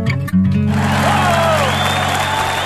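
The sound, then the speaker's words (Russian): Children sitting under a table clap and applaud as a song's final note fades, a dense steady patter of many hands continuing loudly to the end, with faint voices mixed in. “Она, дети под столом, она сидят и хлопают, аплодируют.”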